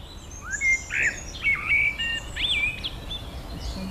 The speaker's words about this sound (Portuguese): Agora estava um melro a cantar também. Este é, este é o melro que está a cantar.